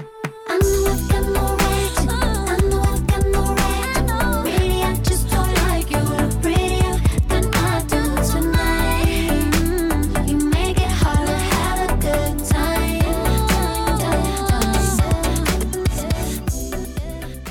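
A loud, dense pop track plays straight through with a heavy low-end pulse and a halftime bounce beat, the drums hitting at a slow, laid-back groove under layered synths and melody.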